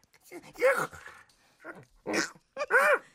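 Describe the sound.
A person imitates puppies whimpering, making several short, high, wavering whines in quick succession, fairly loud, with brief pauses between them and no other sounds.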